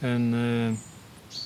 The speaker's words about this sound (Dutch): Een prachtig gebied, je hoort de vogels op de achtergrond, je ziet de prachtige bomen in deze tuin.